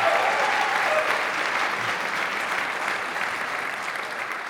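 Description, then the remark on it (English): An audience applauds a member of the pastoral team who works every week with about 100 teenagers. The clapping is a dense, even wash that holds at a strong level throughout and tapers only slightly toward the end, with no voices standing out. “How many know that deserves some round of applause right there?”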